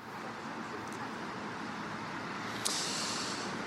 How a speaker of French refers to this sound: ici à Paris, les chutes de neige se sont euh, arrêtées. Alors on se trouve sur un axe routier euh, très emprunté hein, par les franciliens ici à la porte Saint-Cloud.